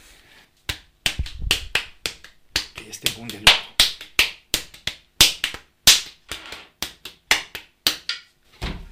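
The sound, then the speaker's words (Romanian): Potter's clay, made of clay, sand and iron oxide, being kneaded by hand a second time before a vessel is formed: a quick irregular series of sharp, wet-sounding slaps and smacks, about twenty of them, with a brief spoken remark over the work. “Îi frământat. Și îl mai frământ o dată să mă asigur.”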